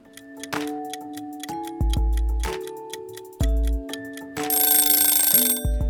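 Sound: kitchen timer ticking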